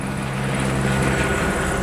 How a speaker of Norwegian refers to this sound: Helikopteret kommer med en hvit sekk på 1000 kg med kalkstensgrus.